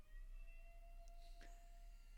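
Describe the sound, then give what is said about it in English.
A tornado siren in Burns wails faintly in the background, its steady drawn-out tone holding under low room noise and a few brief soft clatters. “That would be the Burns tornado siren going off.”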